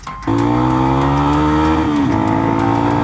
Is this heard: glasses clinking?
no